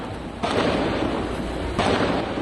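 Gunfire from heavily armed robbers during a bank robbery in Cametá rings out in two loud bursts that echo and roll into a sustained, noisy rumble, with no voices.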